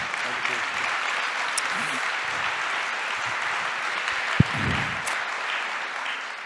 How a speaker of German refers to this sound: Schön, dass du da bist. Ja, nochmal normalen Applaus.